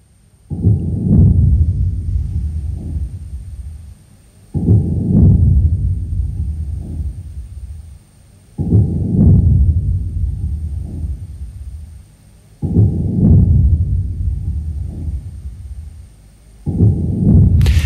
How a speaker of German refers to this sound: Das klingt für mich so ein bisschen wie der verlangsamte Herzschlag eines Neugeborenen, aber Sie, konnten Sie hören, was das war gerade? Ich würde meinen, das war das, das Erdbeben aus Polen. Richtig, oder?